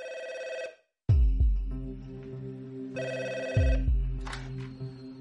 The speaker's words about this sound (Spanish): El teléfono sonó y yo contesté, era ella.